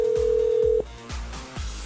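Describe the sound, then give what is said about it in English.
A steady telephone dial tone hums for under a second, then cuts off as a Pure Country 94 radio host dials a ticket-giveaway winner, with a few soft clicks and beeps over a low rhythmic background. No one speaks. “Let's make this phone call now.”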